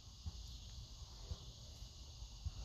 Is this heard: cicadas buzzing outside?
yes